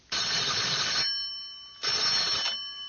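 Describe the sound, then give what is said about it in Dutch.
A telephone rings in an archive basement, twice in a ring-pause-ring pattern, each bright metallic burst lasting about a second with a lingering tone between them, loud, with no voices. “Ik was juist met Evelien in de archiefkelder aan het werk toen de telefoon ging.”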